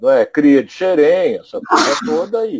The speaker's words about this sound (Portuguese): Saúde. Então, vamos esperar. É, Olha essa, esse espirro aí pode ter jogado uma Covid aí danada aí dentro.